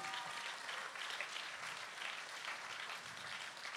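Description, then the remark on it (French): A festival audience applauds steadily, a dense wash of many hands clapping at once, sustained and even in loudness for the whole stretch with no voices on top. “Euh, on peut les applaudir déjà, s'il vous plaît.”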